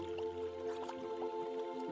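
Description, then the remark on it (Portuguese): Water bubbling and plopping at an irregular, steady pace in a huge cauldron with no fire beneath it, on a mountain trail near a steep cliff, with a constant low hum underneath; no voices, moderately quiet. “Uma panela imensa com água sempre fervendo, apesar de não existir fogo embaixo dela.”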